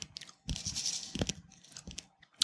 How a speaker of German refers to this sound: Kann man auch so eine Nudel hier knuspern einzeln? Kann man das?